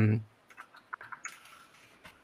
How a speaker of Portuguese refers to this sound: Esse é meu teclado, tá, gente? Barulhento.